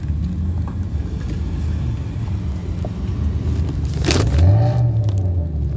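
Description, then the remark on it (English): A car engine idles with a steady low rumble, then revs up loudly near the end, its pitch climbing as the throttle opens. No talking. “Rev it up!”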